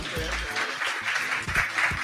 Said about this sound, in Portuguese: Palmas, palmas, palmas, você é doido?